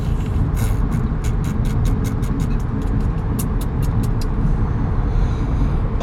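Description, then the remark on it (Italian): A Honda car speeds loudly past outside, its engine a steady, heavy rumble with a rapid series of sharp clicking rattles layered on top, and no voices. “Perché ne è passata un'altra onda sparatissima.”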